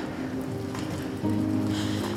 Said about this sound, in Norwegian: Det var veldig fint med snø til morgenen i dag, men nå er det regn og slaps og kaldt.